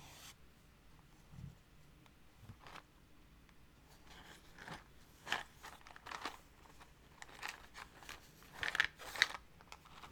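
Wooden matches rattle and scrape inside a small cardboard box, producing quiet bursts of dry clicks and scratches at an irregular pace, growing busier toward the end.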